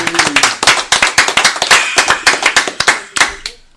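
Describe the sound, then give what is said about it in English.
A small group claps steadily for a few seconds to welcome a guest, the sharp hand claps dense and close together, with a faint voice murmuring underneath. “Let's go ahead and make some noise”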